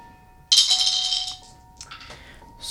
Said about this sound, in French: Vous me faites tous un jet, un jet de dés.